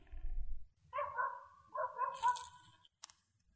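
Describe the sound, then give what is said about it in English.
A dog barks somewhere in the background, two drawn-out, slightly whiny calls in quick succession, fairly faint over a low rumble, followed by a brief sharp click. “There is a dog barking in the background.”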